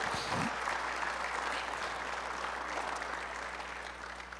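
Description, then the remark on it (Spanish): An audience claps together in steady, dense applause, sustained and fairly loud throughout the few seconds, with a faint low hum underneath, applauding the Lord at a preacher's call. “Alguien por favor aplauda al Señor y sigamos adelante.”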